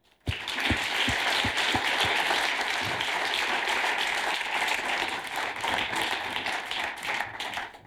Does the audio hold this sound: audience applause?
yes